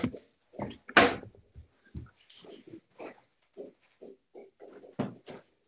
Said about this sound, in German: Echt, ich bin beschäftigt schieß nicht gegen die Tür. Passt Nicht gegen die Tür, aber sonst passt. Nicht gegen die Tür.